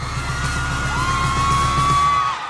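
A large concert crowd in an arena roars and cheers as the singer steps onto the stage, at a steady, loud level, with a high piercing whoop or whistle rising above the din and holding for over a second.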